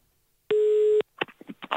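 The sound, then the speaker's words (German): A telephone ringing tone on a call: a single steady, mid-pitched electronic beep lasting about half a second, followed by a few short, choppy sounds on the line. “Er hat gesagt, ich soll es klingeln lassen.”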